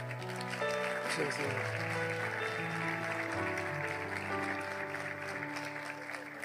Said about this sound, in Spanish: Todos aquí dicen amén. De una salva de palmas.